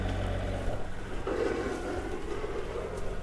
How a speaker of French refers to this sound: Alors ça c'est le doux bruit du moteur qui tourne depuis 15 heures maintenant parce qu'il y a deux nœuds devant.